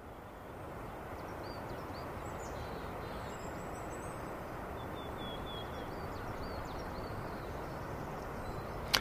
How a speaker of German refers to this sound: Da ist eben so äh, der omnipräsente Wind in den Blättern und der, war, der hat mich das schon sehr fasziniert, weil, äh, weil rundherum quasi immer so äh, sehr viele Bäume waren